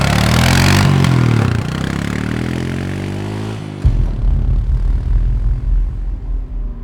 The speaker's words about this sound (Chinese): 泰森骑上电动车，往市郊赶了过去。